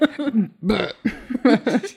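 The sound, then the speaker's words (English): A voice imitates a series of croaky burps, several short belch-like bursts in quick succession, loud with no other sounds around them. “Oh, ah, that one is hilarious to me because some people have quirks or twitches or whatever, but this guy when he was like anxious or lying would burp.”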